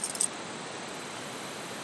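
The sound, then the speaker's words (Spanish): A quick, faint jingle of keys being handed over by a neighbour in the first moment, a few light metallic clinks, then only a steady soft background hiss with no voices. “Tengo las llaves.”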